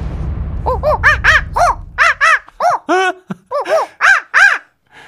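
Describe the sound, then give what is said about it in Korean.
A person imitates monkey screeches: a loud series of about a dozen short, piercing shrieks in quick bursts, opening over a low rumble that fades away. “원숭이 어떻게 하는 건데 언니 잘 몰라 그러지 않았어요 혹시?”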